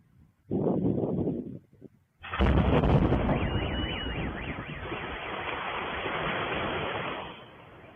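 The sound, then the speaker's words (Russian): A short burst of noise, then a sudden loud blast from an aerial bomb dropped from an Su-34 aircraft, exploding in the evening three kilometres from a city centre and leaving a crater 20 metres in radius. A long, roaring rumble follows, with a wailing car alarm rising through it before it fades. “А накануне вечером в трех километрах от центра города произошел взрыв, на месте которого образовалась вооруженная воронка радиусом в 20 метров, э, сообщили местные власти.”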